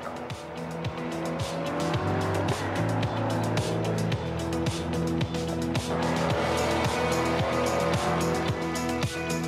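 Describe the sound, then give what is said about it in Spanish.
A powerful Chevrolet Corvette sports car by General Motors roars, its pitch climbing and dropping through gear changes, with tires squealing against the pavement throughout the loud, continuous run. “General Motors producirá su icónico deportivo Chevrolet Corvette completamente eléctrico.”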